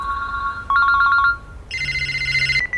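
A telephone rings with a bright electronic warble, its trilling tones jumping to a higher pitch partway through. Close, clear and loud, with no voices.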